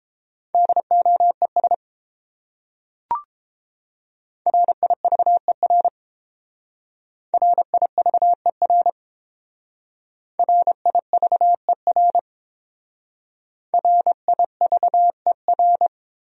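Morse code practice of the top 300 words, sent at 22 words per minute as a steady mid-pitched tone keyed in rapid dots and dashes, coming in five short bursts separated by pauses, with one brief click early on.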